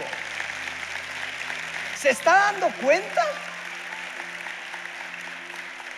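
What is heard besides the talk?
audience applause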